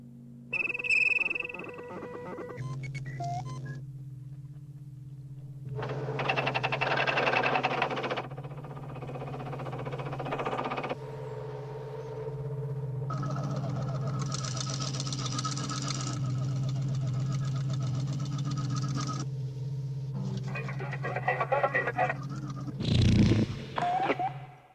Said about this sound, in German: gerade das äh, Signal, was quasi dann, das, das Notrufsignal, was dann den Film auch auslöst, die Filmhandlung.